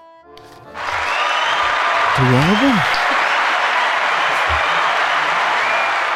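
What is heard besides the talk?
applause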